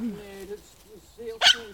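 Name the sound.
dog barking nearby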